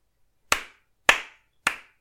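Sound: sarcastic hand clapping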